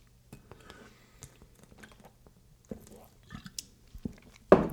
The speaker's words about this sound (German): Wir trinken jetzt ein äh, schönes äh, Gaffelkölsch, Feinhaber Geschmack.